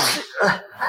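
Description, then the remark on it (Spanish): A single sharp sneeze, fairly loud, with a breathy burst followed by a second shorter exhale, no talking. “Salud.”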